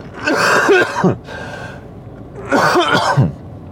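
Two loud coughing fits, each a rough cluster of hacking coughs, separated by a short quiet pause. No one speaks.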